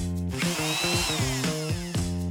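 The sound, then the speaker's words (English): A power drill runs steadily, its motor whining loudly and shifting pitch as it revs down and back up, with no voices over it. “Wrench. Wrench. Drill. Drill.”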